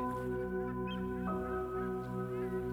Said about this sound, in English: The seabirds chirp in the background,